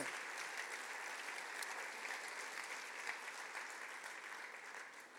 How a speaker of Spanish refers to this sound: Reciban este aplauso de amor de sus hermanos en Cristo.